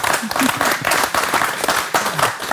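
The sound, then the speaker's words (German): Steady audience applause, many hands clapping in a dense, continuous patter with slight surges, fairly loud and without any talking over it, welcoming the managing director of Annaberger Backwaren GmbH as a guest. “Und weil wir Publikum haben, können wir es auch mal so machen wie im richtigen Leben und können uns mal freuen, dass jemand da ist.”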